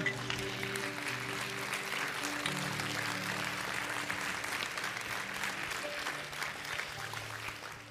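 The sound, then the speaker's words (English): A church audience breaks into sustained applause for the word of God, a dense, steady wash of clapping lasting several seconds, with a few low sustained tones and faint voices mixed underneath. “Come on, can we get the Lord hand clap for the word of God?”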